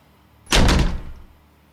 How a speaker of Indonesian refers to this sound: Kini ada suara dari arah pintu kamar mandi yang dibanting keras.